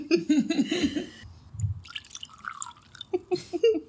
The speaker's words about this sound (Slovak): Pardon, potrebujeme dolieť. Áno? Preto gestikulujeme, aby nevedeli, že si dolievame.